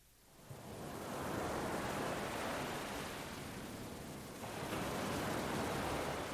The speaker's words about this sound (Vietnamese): Nghe tiếng sóng biển xem, hay không?